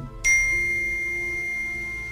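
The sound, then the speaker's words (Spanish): A single bright WhatsApp message notification chime rings out clear from a phone. Its pure tone lingers and slowly fades over a couple of seconds, with no voices around it. “Y ahí fue donde entendí que la mejor herramienta para contar los 101 en la verea... tenían que ser los tan amados como odiados audios del WhatsApp.”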